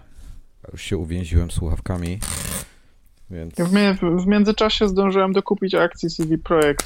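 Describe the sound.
A short, harsh ripping burst as a courier parcel is torn open by hand, with a man speaking before and after it.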